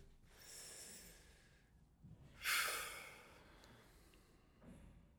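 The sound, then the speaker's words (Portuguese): A slow, deep breath drawn in and then let out during a meditation, quiet, with broad airy hiss; a shorter soft breath follows near the end. No talking. “Inspirar uma beca profundamente e expirar um, também profundamente.”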